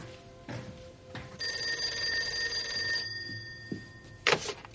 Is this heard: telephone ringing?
yes